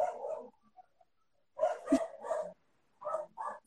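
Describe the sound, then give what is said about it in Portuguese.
Several dogs bark in short bursts, a cluster of sharp barks followed by a pause and then a couple more, moderately loud with no talking over them. They are the speaker's dogs, José and Maria. “Meus cachorros tá dando muito para ouvir meus cachorros latir.”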